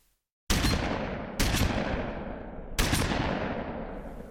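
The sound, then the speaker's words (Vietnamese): Three loud gunshots ring out at night through city streets at uneven intervals, each one followed by a long, rolling echo that hangs in the air, as if bouncing between buildings. No voices are heard. “Từ đó trở đi, đêm nào cũng nghe thấy tiếng súng đì đoàng vang khắp phố phường.”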